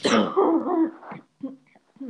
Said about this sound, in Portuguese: Gente, desculpa, ainda tô com tosse.